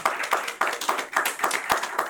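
Audience applause: many hands clapping in a dense, fairly loud burst of sharp, bright slaps, steady over the whole stretch with no voices.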